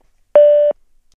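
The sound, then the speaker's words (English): A single steady electronic beep, a loud flat tone lasting about a third of a second, sounds on its own against silence: the tone of a voice mailbox, after which callers leave their message. “Please leave your rants, screams, and exasperated sighs after the tone.”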